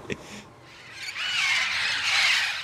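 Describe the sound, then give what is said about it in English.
Red-crowned parrots, Brownsville's official city bird, screech and squawk in a dense, overlapping chorus of harsh, high calls that swell after a quieter opening and stay loud to the end, with no voices, in Oliveira Park, Brownsville. “The red crowned parrot is so adored here that Brownsville has made it the official city bird.”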